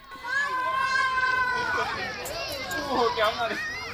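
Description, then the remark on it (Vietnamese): Several children of a floating hamlet on a sandbank in the middle of the Red River shout and squeal while playing outdoors on seesaws and swings made from discarded tires and playing hide-and-seek; their high excited voices overlap in a lively, continuous babble, fairly loud throughout. “Đây là tiếng nô đùa của những đứa trẻ ở xóm phao, bãi giữa sông Hồng khi chơi các trò chơi quen thuộc, bập bênh, xích đu hay trốn tìm được làm ra từ những chiếc lốp bỏ đi.”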